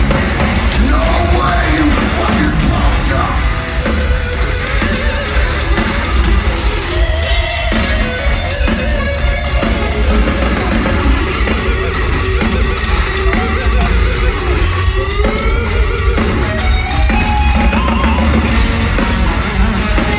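A loud, distorted live concert recording, as if captured on a phone, with a wailing lead guitar solo bending over a dense band and crowd roar that stays constant throughout.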